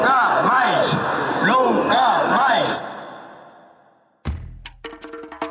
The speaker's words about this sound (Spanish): con un grito en defensa del mar y del medio ambiente que volvió a sonar con fuerza en la plaza del Obradoiro de Santiago. Un grito que en Galicia ya todos conocían.